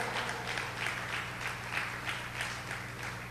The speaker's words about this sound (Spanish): ¿Alguien le puede dar un aplauso a Dios?